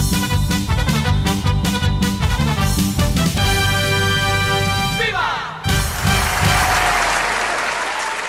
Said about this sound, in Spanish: Bienvenidos al episodio número 50 del podcast de Todos con Pendiente en nuestros primeros 50 episodios continuos. Eh, aplausos.